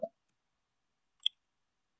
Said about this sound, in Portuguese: Dá pra ouvir um pouquinho. o é, teclado mecânico.